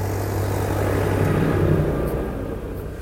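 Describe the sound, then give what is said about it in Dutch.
A tractor rumbles past outside, a steady low engine drone with a deep throbbing hum that swells slightly and then fades as it moves away. “ja, de tractor is voorbij.”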